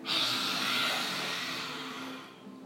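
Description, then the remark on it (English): A person, mouth open and tongue stuck out, lets out one long, forceful, breathy exhale with a faint voiced growl underneath, a human imitation of a lion's roar, steady for about two and a half seconds. “So this time let's open our mouths and stick out our tongue and roar and be really courageous.”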